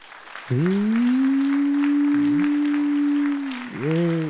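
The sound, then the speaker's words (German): A live audience claps steadily for about three seconds, giving an average applause to calibrate an applause meter. The dense patter holds an even level while a loud sustained low tone hums over it, dipping briefly and rising again at the end. “Wir brauchen einen Durchschnittsapplaus von euch.”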